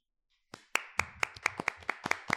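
Hand clapping from a single person, the cameraman at an interview, about ten sharp, evenly spaced claps in a steady rhythm after a brief quiet moment, with no voices.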